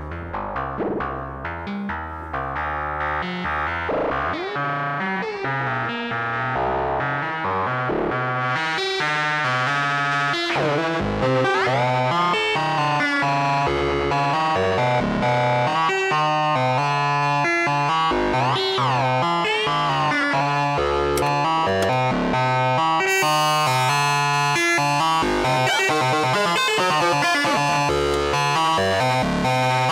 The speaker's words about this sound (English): So this is the ring modulator. So we make like bell sounds with it, but more distorted, not like your typical uh, chimes, chimes, sorry.